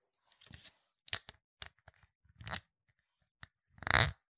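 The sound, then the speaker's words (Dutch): Someone imitates with their mouth the crunchy sound of a woman biting a pickle into pieces, an ASMR trigger sound: a string of sharp, wet crackling bursts in an irregular rhythm, some quick and clipped, with a longer, louder crunch at the end. No one speaks. “van een vrouw die dan zo'n augurk in, in stukken beet.”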